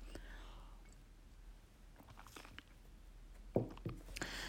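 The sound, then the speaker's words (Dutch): A quiet moment of someone taking a sip of water: near-silence, then a few soft wet mouth clicks and a faint swallow toward the end, with no talking. “Ik ga heel even, neem even een slokje water.”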